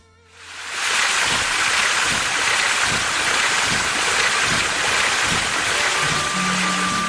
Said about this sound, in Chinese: 一直流淌的黄河，在兰州段放慢脚步。两岸就淤积起了坦荡的沃地，水车高大木轮的吱吱嘎嘎声，与黄河的砰砰通通声一气贯通古今。